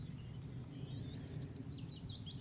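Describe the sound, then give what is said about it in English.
A willow warbler in a stand of conifers sings a sweet, descending cascade of notes over a steady low outdoor rumble, fairly faint, starting partway through and running to the end. “Sort of descent, cascade. I've captured them many times on the podcast, but that's the first of the year for me.”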